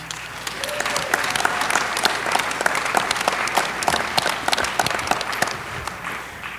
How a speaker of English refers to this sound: Let's give applause, please.